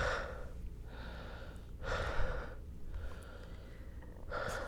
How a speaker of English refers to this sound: Fuck, lad. You're breathing mad heavy. you are all right over there, lad?